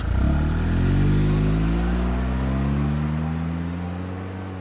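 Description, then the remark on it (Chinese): A car that had sat unused for three months starts; its engine catches and revs up, the low droning pitch climbing steadily and then settling as the vehicle pulls away, heading for Yabuli, fairly loud and continuous with no one talking. “于是我发动蛰伏了三个月的汽车，开往亚布力。”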